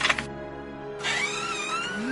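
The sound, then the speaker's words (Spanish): A black door with the number 13 creaks slowly open, a drawn-out, wavering squeal that pauses briefly and then returns, its pitch sliding upward toward the end. No one speaks. “Los kikiricuates estaban en eso cuando de pronto la puerta negra con el número 13 comenzó a abrirse lentamente”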